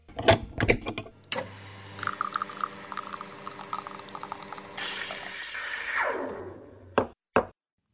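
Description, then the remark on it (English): A few sharp knocks, then an espresso machine's steady buzzing pump hum with a rising hiss of liquid pouring, ending with two quick clicks. No talking. “And now it's time for me to head over to my espresso machine and brew up another leadership espresso shot.”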